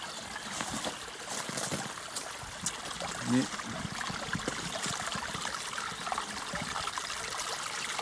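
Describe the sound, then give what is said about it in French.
Water trickles steadily from a small spring basin where salamanders lay their young each year, a continuous babble and splash with one slightly louder gurgle partway through, filling the whole recording outdoors. “Mais en général, euh, tous les ans, euh, elle, vient euh, déposer chez les jeunes dans cette petite vasque la source du moteur.”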